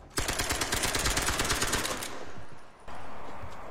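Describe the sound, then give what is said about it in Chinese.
A firing squad of German soldiers executes Jewish prisoners brought by truck to a forest in 1942 France, in the film Persian Lessons: a volley of rapid, loud gunshots rattles out in a dense burst for about two seconds, then cuts off abruptly, leaving a low, steady rumble of background noise. “来，fire！”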